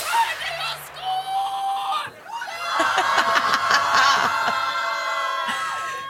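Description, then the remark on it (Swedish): The Linköping women's football team celebrates in their locker room right after the match that made them Swedish champions in 2017: a crowd of voices shouting, shrieking and laughing together, loud and continuous, swelling into a dense, excited din after a brief lull. “Det vi hörde i klippet var då från Linköpings omklädningsrum direkt efter avslutad match”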